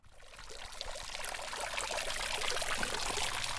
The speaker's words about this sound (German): Vor dem kleinen Rathaus schräg gegenüber der Kirche, wo der Springbrunnen plätschert, taucht plötzlich doch noch eine Gruppe von Menschen auf.